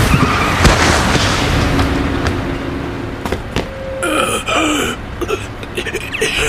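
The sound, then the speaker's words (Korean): A vehicle skids with a long screeching tone, then slams head-on into the front of a bus with sharp crunching impacts, followed by clattering and a harsh, wavering squeal amid roaring noise. “버스 정면을 부딪혔어.”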